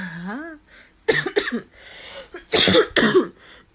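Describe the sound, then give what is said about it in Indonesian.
A loud coughing fit: several harsh, explosive coughs in irregular bursts, preceded by a brief voiced hum and strained throat sounds between the hacking. “kok nancur kan yo watuk goblok”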